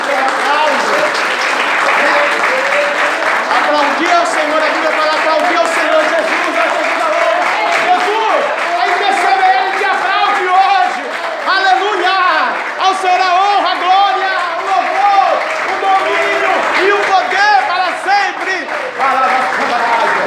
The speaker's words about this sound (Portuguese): Vamos aplaudir a Jesus então? Jesus merece.